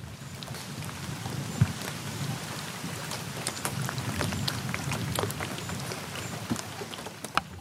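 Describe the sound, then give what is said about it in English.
Steady rain patters down onto a river in northern Canada, a dense hiss of countless drops with scattered sharper plinks and a low rumbling wash underneath, continuous throughout with no voices. “Anyway, I'm on a river in northern Canada in the rain, being eaten by mosquitoes”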